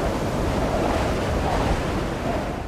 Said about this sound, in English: Like this scene from the film where they're setting up one of the cameras out on the glacier the yellow one, okay, for the wire clips. Or there's so much wind that it's almost unusable.